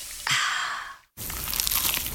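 A crisp crunch of someone biting into a slice of pizza, a brief pause of silence, then a second bright, crackling burst of crunching and chewing. No one speaks.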